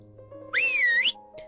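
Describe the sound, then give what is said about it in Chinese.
A single shrill whistle blast lasting about half a second, its high pitch sliding and wavering before cutting off, loud over a faint steady background hum. “在杰克走出球场的时候，酷帅先生又吹响了口哨。”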